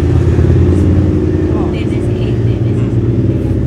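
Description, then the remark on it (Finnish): A steady low engine rumble of motorcycles going by, heavy and continuous with slight revving swells, loud for the whole stretch. “Moottoripyörät siellä menee.”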